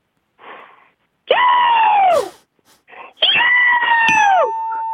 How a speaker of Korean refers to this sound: 어, 인천 앞바다 말고 저기 미국 서부에 있는 예. 앞바다에서 나는 갈매기 소리입니다. 서부, 저 샌프란시스코. 네네, 맞습니다.